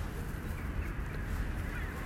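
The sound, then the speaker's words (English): Geese honk and call over a steady, low, rumbling outdoor background, the cries faint and scattered rather than rhythmic, with no one speaking. “what the weather is reminding me now, particularly right at this moment as I hear the birds stir up.”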